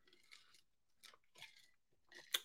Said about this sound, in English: We gotta, we gotta, we gotta take a sip of this lemonade on that.